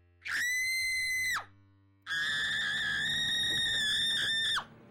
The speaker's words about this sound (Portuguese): Havia terminado a radionovela e a voz do Brasil, quando se ouviu uma tremenda gritaria, todos, inclusive os moradores das vielas e ruas vizinhas vieram em socorro da moça que gritava e chorava.